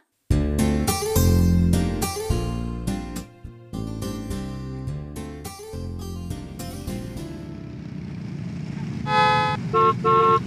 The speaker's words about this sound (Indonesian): Wah, macet juga ya lewat sini.